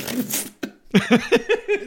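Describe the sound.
A voice imitates a sneeze: a breathy, hissing build-up, then a short sharp burst, followed by a few rhythmic voiced bursts like chuckling.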